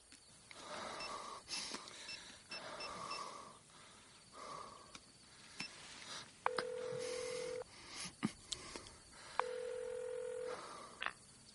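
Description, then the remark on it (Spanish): A mobile phone is dialed inside a car over a soft rustling background, then two long, steady ringback tones sound with a pause between them as the call connects to voicemail. Clear, with no talking. “Saca el móvil.”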